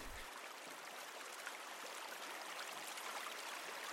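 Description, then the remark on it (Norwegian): A small brook, being crossed by people on a walk, flows steadily, its continuous bright, hissing babble of water filling the scene with no voices or other sounds breaking through. “Akkurat her vi går over akkurat nå en bekk”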